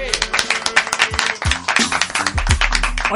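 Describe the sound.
A few people clap in quick, dense bursts for a few seconds, fairly loud, with voices talking and chattering over the applause, which greets the arrival of napolitana pastries.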